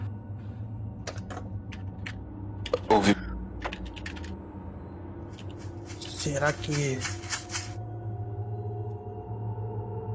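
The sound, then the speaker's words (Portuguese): Dry, crackly rattling comes in short scattered bursts, with a longer shaking stretch near the middle, heard at moderate volume beneath a low steady hum while someone briefly speaks. “Tem alguém balançando chocalho por aqui. Nossa. Se pá que é uma cobra.”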